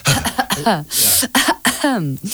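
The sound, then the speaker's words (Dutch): A voice makes light, airy coughs and throat-clearing sounds, done with plenty of air in a posh English manner, a few short breathy bursts mixed with voiced, speech-like vocal sounds, fairly loud. “Ja, en een beetje kuchen is niet erg als je het maar met veel lucht doet. Een beetje bekakt op zijn Engels kuchen.”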